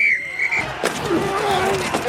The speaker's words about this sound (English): That's the sound of all the sports you love, all at once.